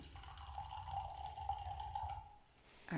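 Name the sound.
drink poured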